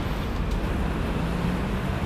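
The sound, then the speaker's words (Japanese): A steady wash of heavy road traffic rumbles along with no break on a sunny, fairly warm day, low engine noise blending into a constant outdoor hiss, fairly loud, with no distinct single vehicle standing out. “いや車の量はなかなか多いですね”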